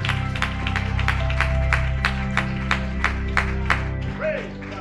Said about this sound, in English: Someone just clap your hands and give the Lord some praise.